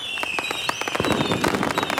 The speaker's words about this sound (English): No, that was just more fireworks for the for the Americans.